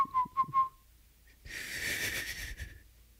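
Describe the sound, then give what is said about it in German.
Three quick, thin whistled notes, then a long breathy rush of air pushed through pursed lips, a hissing failed whistle with only a faint tone, fairly loud, no talking. “Junge, das ist das Schlimmste, wenn du so Leuten sagst, ne, einfach Lippenspitzen und dann, und dann Luft durchpusten, ne, die nicht pfeifen können, die machen den hier.”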